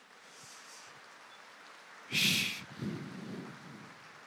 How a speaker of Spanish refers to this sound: Aleluya, un aplauso a Jesús.